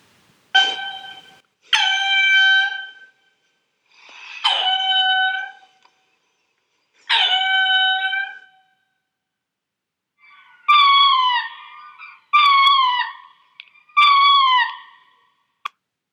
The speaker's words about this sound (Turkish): Ee, Madagaskarlı dostumuzun daha spesifik özelliklerinden bahsedecek olursak, halka kuyruklu lemur 18 yıla kadar yaşayabilen otobur bir memeli. Ve şöyle bir ses çıkarabiliyor.